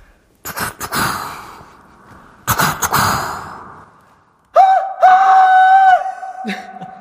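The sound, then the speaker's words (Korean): A voice does a vocal impression of a steam locomotive: two long, breathy chuffing hisses, then a sustained whistle-like wavering tone with a drop in pitch at the end, loud, no talking. “그냥 좀 똑같은 성대모사 말고 조금 색다른 음. 어, 증기기관차 오, 소리를 연구 중이었어요.”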